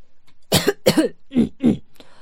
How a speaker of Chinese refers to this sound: 大公爵清了清嗓子，大声地说